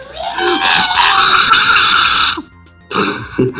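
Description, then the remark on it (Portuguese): A voice imitates a monster's pained, howling scream after it is slashed across its back: a loud, rasping cry held for about two seconds, a brief pause, then a shorter strained burst, alone. “O bicho faz um grito urrante de dor que eu não vou fazer por causa da minha garganta.”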